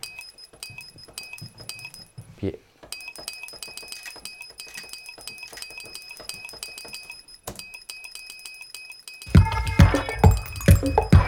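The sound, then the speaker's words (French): A glass is struck, ringing out in quick, bright clinks, with a delay effect added so each hit trails into a dense string of delayed echoes; the repeats build to a louder, fuller cluster near the end. “Et puis, j'ai créé un petit, petit, un petit reverb, enfin un petit delay dessus.”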